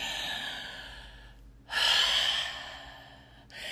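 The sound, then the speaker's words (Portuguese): Slow, breathy exhales through the mouth, one long airy release after another with a brief pause between, like deliberate relaxed breathing. No talking. “Então, respire pela boca e solte comprido. E aí você vai pensando e soltando o ar, pensando e soltando o ar, assim.”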